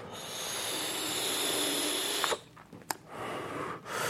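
vaping

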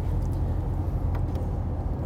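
car driving

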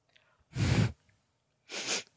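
snort through the nose

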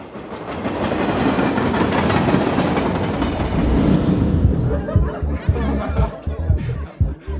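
train travelling on rails

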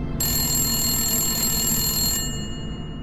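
telephone ringing

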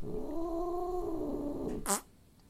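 cat purring

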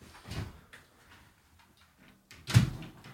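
door being closed

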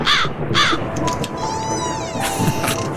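crows cawing

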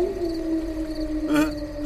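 wolves howling

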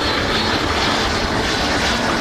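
airplane taking off

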